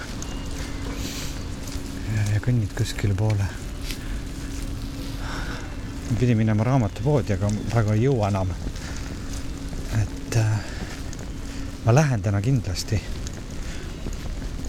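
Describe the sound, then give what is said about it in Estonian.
Steady spring rain in a city patters on an umbrella, a continuous soft crackling hiss that runs throughout while a person talks over it in several short bursts. “Te kuulete, kuidas vihm krabiseb äh, vihmavarju vastu.”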